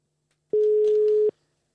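A single steady telephone ringback tone as a call is placed, a clean sustained beep lasting under a second with abrupt start and stop, heard alone against silence.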